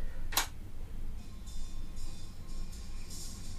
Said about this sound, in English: I've got to count the spaces on the record so I know where to put the needle down. One, two, three, four, five. And I'll play it on there so we can hear it.